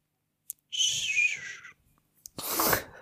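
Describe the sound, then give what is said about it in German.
A person whistles a breathy, wavering tone for about a second to mimic a magical transition sound, then follows it with a short, loud, hissing whoosh. “Und dann einfach zusammen, ohne irgendeinen schönen, über, mit so einem Zauberübergang, mit so einem Zauberton.”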